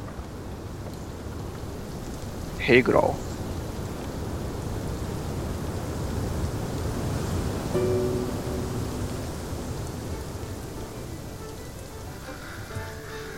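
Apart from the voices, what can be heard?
rain falling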